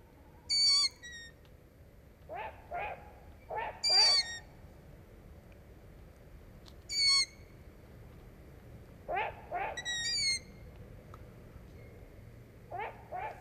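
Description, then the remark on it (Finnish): An owl gives repeated squeaky, creaking calls like a rusty hinge, several short bursts spaced a few seconds apart, with thin high notes mixed in over a low, steady background rumble. “Ja ladon ovi heiluu ja sarana natis.”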